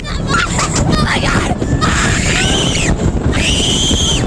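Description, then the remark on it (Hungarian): Roller coaster passengers scream in overlapping, wavering high-pitched bursts over a steady roar of rushing wind and rumbling track, the shrieks rising and falling for several seconds. “Mint a hullámvasúton, a gazdaságban is normális az emelkedő és időnként zuhadó pálya, még ezt az utasok nehezen szokják is meg, mint halljuk.”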